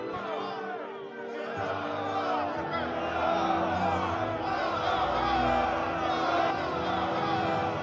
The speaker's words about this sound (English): the scene is him walking through his men as they cheer him